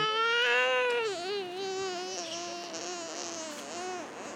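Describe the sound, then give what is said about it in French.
A baby babbles and coos in long, wavering vocal sounds, rising and falling in pitch, fairly loud, with no other voices, while out for a walk on a street in Johannesburg in April 2010, with wind in the trees. “Et mon bébé qui fait du bruit.”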